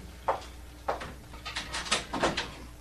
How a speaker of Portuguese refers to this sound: por favor, saia e feche a porta.